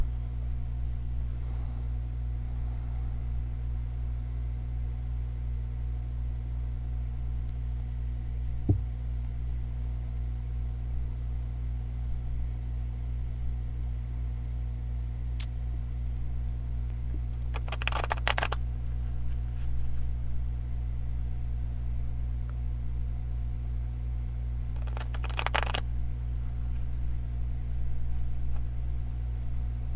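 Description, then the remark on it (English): Two brief riffling bursts of a deck of guidance cards being shuffled, several seconds apart, over a steady low electrical hum, with no one speaking. “Um, I did my first shuffle while I was going on about the conscious breathing. That's why you may have only heard two.”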